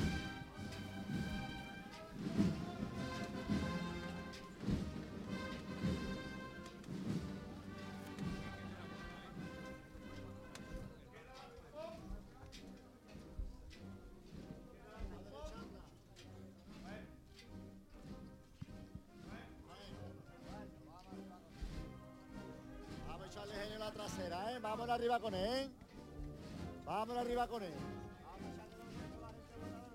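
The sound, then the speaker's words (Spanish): Rhythmic knocking from the hanging fringes of a procession float marks the beat of the music, clacking along beneath loud band music playing a march dedicated to the Virgen de la O that swells toward the end as the float approaches the door. “Ese sonido que escuchan de las caídas va marcando el ritmo con la música que se va acercando el paso a la puerta.”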